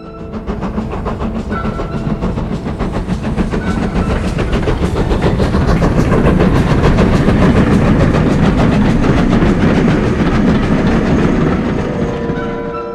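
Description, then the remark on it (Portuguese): A train rolls steadily along the rails, its wheels beating a continuous clickety-clack rhythm over a low rumble, loud throughout with no voices. “Cerca de 400 mil soldados foram despachados no período final de 1941 até o início de 1942, fazendo a viagem que durava entre uma e duas semanas em trens especiais apressadamente organizados.”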